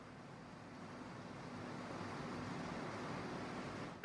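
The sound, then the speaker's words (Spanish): Heavy rain pours down in a dense, steady roar of hiss and patter, continuous and fairly loud throughout, with no voices, ending in a brief sharper burst. “Mira cómo se escucha, mira cómo se escucha la lluvia.”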